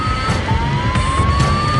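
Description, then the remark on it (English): A cockpit overspeed warning on Aero Peru Flight 603, signalling that the plane is flying too fast, sounds over a loud, steady roar of aircraft engine noise, with a sustained tone and repeated bursts running through the whole moment. No one speaks. “Overspeed means the plane is flying too fast. The pilots cannot believe it, but the warning adds to their confusion.”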